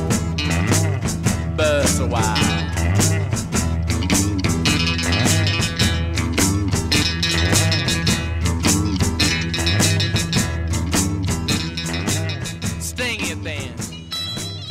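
A loud, steady blues rock song with a driving beat, twangy guitar lines and a sung melody, playing continuously and close up before easing slightly at the end.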